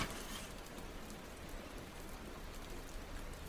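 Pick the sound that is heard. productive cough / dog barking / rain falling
rain falling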